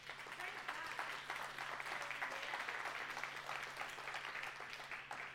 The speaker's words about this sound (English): And so I'll give them another hand clap, would you?